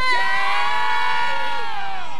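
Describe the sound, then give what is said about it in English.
A crowd in Mobile's Crichton community shouts a long, loud "yeah" together, many high voices blending into one sustained cheer that holds steady for about two seconds before trailing off. “Who else in the leprechaun say yeah?”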